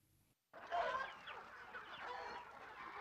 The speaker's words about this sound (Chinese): 养鸡场里不计其数的小鸡不停地跑着抓着。母鸡们咯咯地责骂着它们的宝宝